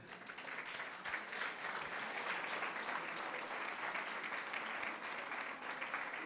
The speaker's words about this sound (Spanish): Nos faltó un aplauso. El aplauso para los chiviados.